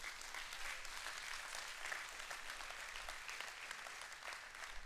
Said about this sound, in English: can you give the Lord a hand clap of praise for that?